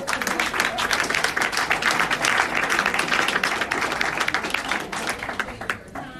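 Sustained applause from an audience to thank a senator, dense overlapping claps at steady loudness for several seconds, then thinning out near the end.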